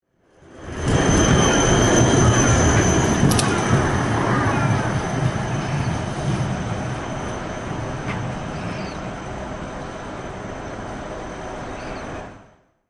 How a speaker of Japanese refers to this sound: えー、まず最初の音なんですけども、10秒ちょっとなんですが、えー、これは2006年の1月29日ですね。えっ、ー、と、この時は何だろうまあ、九州に行ってるんですけども、えーと、熊本の路面電車のの音を最初に拾ってますので、こちらをお聞きください。